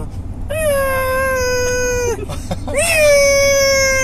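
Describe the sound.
A person imitates a dog howling with two long, drawn-out tones, each swelling up then holding steady. The voice is loud, with a short break between the howls and no talking.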